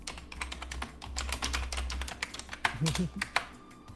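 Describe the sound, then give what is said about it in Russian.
Rapid, irregular clicking of keys on a computer keyboard as someone types a message, the taps fairly loud over a low steady hum, with a faint voice murmuring briefly near the end. “Блин, сейчас мы тебе напишем.”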